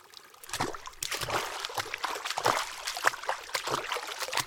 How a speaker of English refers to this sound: After a short while, he encountered the first stream, all he really had to do was remove his shoes and socks, and luckily, he just waded across the river.